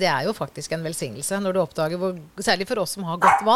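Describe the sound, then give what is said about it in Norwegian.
A dog barks briefly in the background, a short sharp bark or two near the end, partly buried under steady conversation between people talking. “Jøss, har du fått deg bikkje, eller?”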